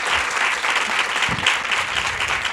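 A crowd claps steadily in a dense, sustained burst of applause, loud and continuous throughout, with no voices standing out above the clapping.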